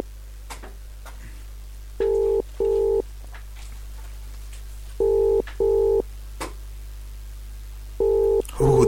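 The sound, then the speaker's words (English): A phone line's ringing tone purrs in three double bursts, evenly spaced, heard through the handset over a low steady hum as a call is placed live to Southport, with no one speaking yet. “So here we are, we're ringing live to Southport.”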